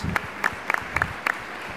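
Sparse applause: a handful of sharp hand claps in loose pairs, spaced roughly a quarter second apart, moderately close and fairly quiet over a low background murmur, with no talking.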